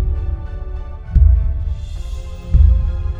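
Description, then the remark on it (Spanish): Heavy, booming thumps land roughly every second and a half over a deep, rumbling low hum, like a strong tremor or giant footfalls shaking the ground. No voices are present. “Cuando Jack estaba disfrutando de la comida, sintieron un fuerte temblor.”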